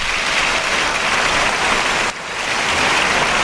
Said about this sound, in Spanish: Y el público que responde con una gran ovación que podemos oír.